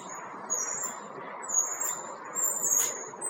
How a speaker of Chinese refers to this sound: 这里听到的就是公交的声音，公交车的声音。